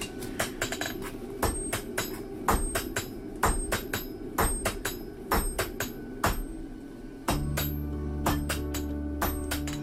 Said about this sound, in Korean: 둘이서 셋이서 함께 대장리를 하던 옛 매질 소리를 들려주고 싶어서 귀찮다는 친구를 굳이 불러낸